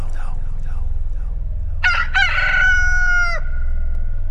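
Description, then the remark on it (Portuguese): A rooster crows once, loud, a sharp rising call that holds a long wavering note before cutting off, over a low steady rumble in the background. “E no mesmo instante o galo cantou.”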